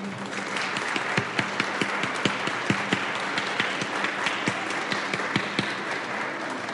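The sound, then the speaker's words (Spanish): An audience at a human rights forum and fair applauds steadily for officials of the Federal District Human Rights Commission. It is a dense wash of many hands clapping, with sharper individual claps popping out at an uneven rhythm, sustained and fairly loud throughout with no voices. “para quienes pido demos nuevamente un fuerte aplauso.”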